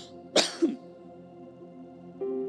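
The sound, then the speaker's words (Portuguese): A short, deliberate cough: a sharp burst followed by a smaller second push, then quiet and a low steady hum near the end. “Tem gente que não pode tossir.”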